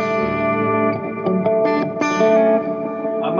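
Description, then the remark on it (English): A sustained electric guitar passage played through a pedal board, drenched in effects, with shimmering chorus, echo and distortion, notes ringing and overlapping steadily at a moderate level with no voices. “This is all from the pedal board.”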